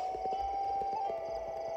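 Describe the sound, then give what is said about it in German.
Video game horse hooves clip-clop in a quick, steady rhythm over a sustained tonal background hum, moderately loud, with no voices, as the player tries to catch a horse. “Der sagt mir, dass ich hier ein Pferd fangen muss. Aber ich will jetzt dieses Pferd.”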